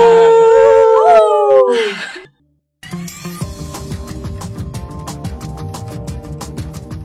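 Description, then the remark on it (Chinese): A dog named 罗福 (Roff), now a city dog, howls for about two seconds in long, wavering tones that slide downward and fade. After a brief silence, music with a steady, plucky rhythmic beat begins. “太好了，罗福，你现在是一只城里的狗喽。”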